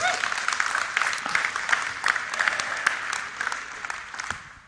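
An audience applauds to thank the stand-in preachers, a steady, dense wash of clapping that holds at an even level for several seconds before starting to thin out toward the end.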